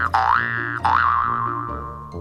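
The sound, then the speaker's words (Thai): Two springy cartoon boings for a young frog jumping after leaving the water for land, each a bright tone that swoops upward and wobbles, the second ringing out longer over a low sustained hum, loud and alone without any voices. “ขาหลังยาวๆก็จะพาตัวเองเดินจากน้ำขึ้นมาบนบก แล้วก็กระโดดดึงๆในที่สุดค่ะ”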